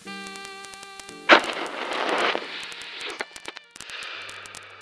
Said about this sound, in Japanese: あ、父ちゃん、タバコつけるなら言ってよ。別にいつ、どこで吸ってもいいだろ、タバコぐらい。